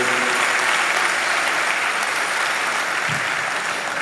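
Sustained applause from an audience, given to the Lord, a dense, steady wash of clapping hands that stays loud and even for the full few seconds without any speech.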